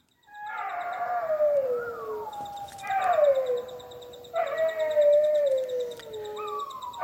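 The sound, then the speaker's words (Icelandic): Dingoes howling in a chorus of long, mournful, wavering howls that slide downward in pitch, three or four drawn-out calls overlapping one after another, with a faint steady ticking chirr in the background. “Þetta er nú bara svona spangól, þeir eru, dingóar eru þetta náskildir uh, venjulegum hundum en gelta vist alls ekki uh, jafn mikið en spangóla þess meira.”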